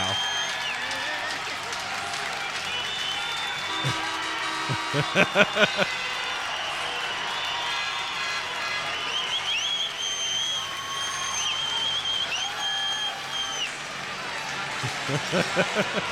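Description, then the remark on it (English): A dense arena crowd roars and applauds steadily as teddy bears are thrown on. Shrill, sustained cheap air horns blare over the din, with a burst of sharp claps or thumps partway through. “I'll turn the volume up to blow everybody's eardrums on this with the cheap air horns and shit.”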